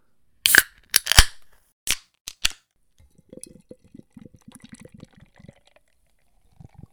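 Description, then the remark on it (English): A few sharp metallic snaps as a can of IPA beer is cracked open, followed by a soft fizzing, gurgling pour that fades out. Fairly crisp, with no talking. “Let's crack it open.”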